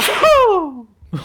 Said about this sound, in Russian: Будь здоров. Спасибо.